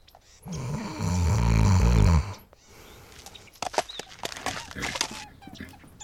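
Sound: imitated snoring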